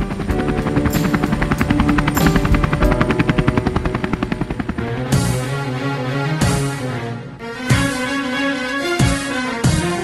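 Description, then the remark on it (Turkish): A helicopter carrying Yasser Arafat's body is surrounded by a shouting crowd. Its rotor thumps in a rapid, steady chop, loud, with a busy crowd-like roar underneath. Midway the sound shifts, and sharp percussive bursts punctuate the continuing engine drone as Palestinian security forces fire into the air. “Filistin güvenlik güçleri havaya ateş açarken kalabalık Yaser, Yaser, hoş geldin Ebu Ammar, hoş geldin ihtiyar diye bağırarak helikopteri kuşattı.”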